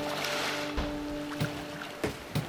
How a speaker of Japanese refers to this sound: 波の音ってやっぱりいいですよねこのラジオの BGM にも波の音をミックスしてたりするんですけど皆さん気づいてたりしますかね